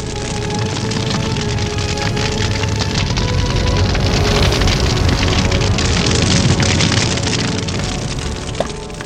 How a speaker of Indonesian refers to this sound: Mereka yang sedang berjuang memadamkan api harus rela bertahan dalam hawa panas ketika menjinakkan api yang berkobaran.